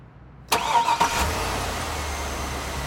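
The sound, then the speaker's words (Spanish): A car engine cranks with a quick whirring starter burst, catches, and settles into a steady low idle rumble, with no one talking, as a woman starts the car after buckling her seatbelt. “Los pestillos suenan y se suben al auto se abrochan el cinturón y ella trata de prender el motor.”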